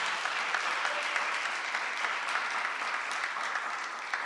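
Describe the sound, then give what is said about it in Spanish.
Steady applause from an audience, given as an offering of applause during a church service, a dense wash of many hands clapping at once that holds at an even, moderately loud level throughout, with no voices standing out. “¿Cuánto pueden darle una ofrenda de palmas?”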